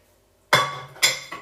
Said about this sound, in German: So, meine Freunde, zum Essen machen. Hey, so, das machen wir so. stelle die Pfanne weg.